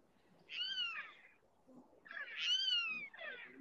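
Two drawn-out, raspy screeches from territorial hawks ring out outdoors, each sliding downward in pitch, with a short pause between them and a faint background hum beneath.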